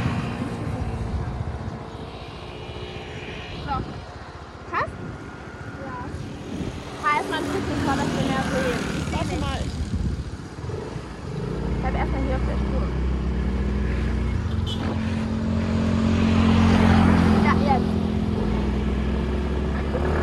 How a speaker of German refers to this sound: haben wir uns einen Roller geholt und sind rumgefahren. Ich bin gefahren